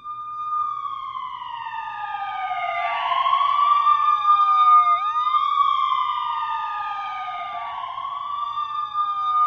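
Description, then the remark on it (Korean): A wailing police siren, heard from far away, sweeps up and down in long repeating cycles, swelling louder toward the middle, with a faint low hum beneath and no voices. “그때 멀리서 들려오는 사이렌 소리.”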